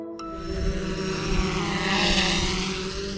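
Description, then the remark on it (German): A steady, high-pitched drone buzz hums overhead for the whole stretch, its whining rotor tone holding fairly constant at moderate loudness with no voices present. “Wenn aktuell eine Drohne über unseren Köpfen kreist, dann heißt das in aller Regel, dass irgendein sehr ambitionierter Hobbyfilmer mal wieder die Welt von oben betrachten möchte.”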